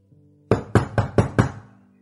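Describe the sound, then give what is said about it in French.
Five firm knocks on a wooden door late at night, evenly spaced in a quick steady rhythm, fairly loud, with a short fading resonance and a faint low hum underneath. “Un soir, alors qu'il s'apprêtait à dormir, il entendit toquer.”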